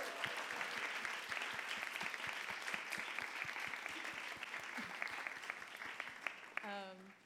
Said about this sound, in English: We'll just give a round of applause for Red Bay for having us here.